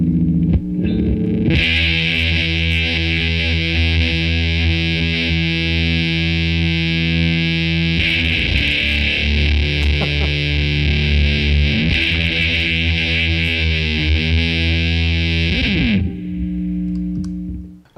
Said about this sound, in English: it's not a fuzz face. It's not a, a big muff. It's that Japanese fuzz sound that's just, I don't know. It's really gnarly sounding.